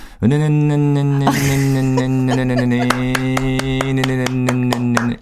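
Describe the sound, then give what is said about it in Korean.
A voice imitates a small scooter engine of 100cc or less, with a steady buzzing drone held for about five seconds, broken by quick rhythmic sputtering pops like a putt-putt idle. “이게 스쿠터입니다.”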